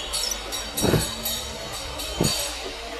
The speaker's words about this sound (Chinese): 啊，城市离不开这种机器马达的轰鸣声。